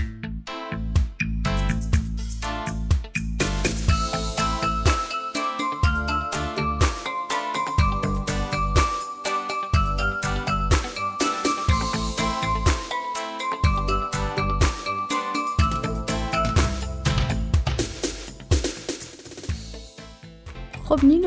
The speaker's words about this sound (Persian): بفرما جواب بده شاهد از غیب رسید جونم یه لحظه گوشی